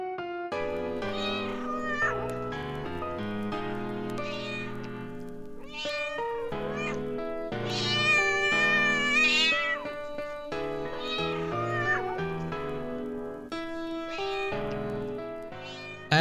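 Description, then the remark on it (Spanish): A mother cat with kittens meows loudly and almost without pause, its drawn-out, wavering cries rising and falling in pitch across the whole stretch, with no one speaking. “las 5 de la tarde, mientras me ocupaba de regenerar la atmósfera de la cámara, aproveché la oportunidad para observar a la gata y sus gatitos a través de la válvula.”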